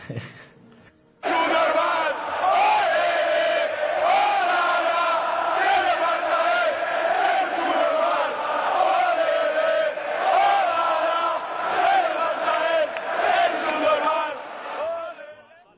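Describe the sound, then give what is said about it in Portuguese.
A huge Real Madrid stadium crowd sings a football chant in unison. It is a loud, sustained wall of voices carrying a steady melody with rhythmic swells, starting abruptly after a brief quiet moment. “E o Real Madrid pega essa mesma música. Não, não canta, vamos ouvir.”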